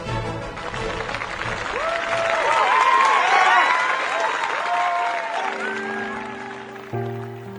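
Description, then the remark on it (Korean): A large theatre audience at the Richmond Theatre in London, England, claps steadily with cheers and whoops for Sarah Adams in the lead role of Lady Macbeth, swelling toward the middle before some sustained musical tones enter near the end. “오늘도 영국 런던 리치몬드 극장에는 관객들의 박수와 갈채가 쏟아집니다.”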